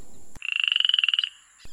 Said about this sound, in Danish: Nu var det altså en frø, vi lige øh, hørte der, men det er altså ikke frøer, vi skal snakke om.